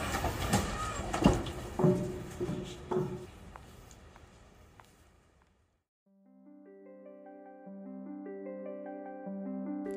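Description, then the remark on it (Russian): A tram rumbles and clanks to a halt at a stop with its doors sliding open, a busy burst of mechanical knocks that fades to silence before gentle melodic music begins. “Это сообщение для тебя я записала в трамвае”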